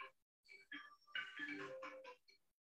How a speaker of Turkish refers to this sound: Bu işte kötü oldu şimdi. Birisi benim telefonla arıyor.